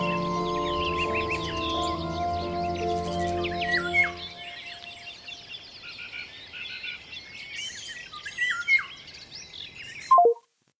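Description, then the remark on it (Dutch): A dense woodland dawn chorus in mid-June in a forest at the edge of Paris: nightingale, golden oriole, thrush and blackbird songs, many overlapping whistles and trills, with a low sustained hum underneath for the first few seconds before cutting off abruptly. “Midden juni een bos aan de rand van Parijs met op de achtergrond nachtegaal, wielenwaal, lijster en merel.”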